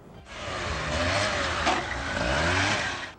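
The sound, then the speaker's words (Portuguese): A motorcycle engine revs steadily and loudly, its pitch rising and falling in waves over a few seconds, with no voices present. “o adolescente publica vídeos fazendo manobras em cima de uma moto.”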